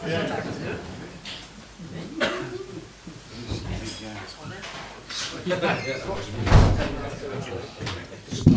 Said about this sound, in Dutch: Ja, die deur, die deur is met een haakje. Ik ben zo gewend dat we in deze Apple Age uh, eh, Macintosh-wereld even met magneten... dat ik bijna ergens een haak uit de muur had getrokken.